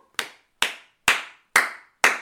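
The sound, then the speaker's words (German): Five sharp hand claps in a slow, steady rhythm, each a crisp bright slap with a short ringing tail, with nothing else heard. “jetzt müsste ich von dir erstmal Applaus, Applaus bekommen.”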